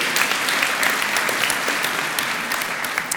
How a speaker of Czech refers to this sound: No já nevím, čem tleskáte, je to velká chyba. Dáda si zaslouží.